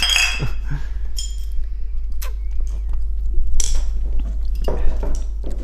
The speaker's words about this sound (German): Ja, schön, dass wir mal wieder anstoßen konnten.